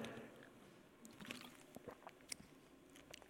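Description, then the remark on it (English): Quiet wet mouth sounds as someone drinks water, with soft swallows and small liquid clicks scattered over a few seconds and no talking. “I need to take it drink of water.”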